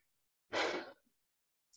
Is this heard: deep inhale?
yes